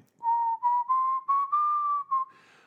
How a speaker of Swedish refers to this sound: Jag visslar så länge.